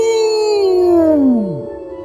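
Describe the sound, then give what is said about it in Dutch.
Dogs howl a song together in one long, loud note that slides steadily downward in pitch before trailing off, with no talking. “Wat kan een hond nog meer wensen? Een liedje om te zingen.”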